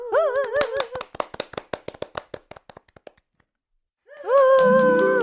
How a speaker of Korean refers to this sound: 그러면 저희가 박수로 청해 들어보겠습니다.